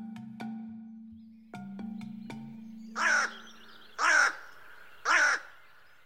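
Three harsh, raspy crow caws ring out loud at evenly spaced intervals, following a low steady hum punctuated by a few sharp clicks.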